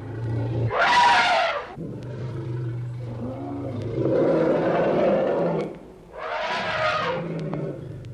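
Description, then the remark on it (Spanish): An elephant, wounded by a hunter's rifle shot at the root of its trunk, bellows in rage: two loud, harsh blasts near the start and end, with a rough, rumbling roar filling the stretch between them, powerful. “Temblaba el aire, dicen, de los mugidos terribles, y deshacía el elefante el cañaveral con las pisadas, y sacudía los árboles jóvenes”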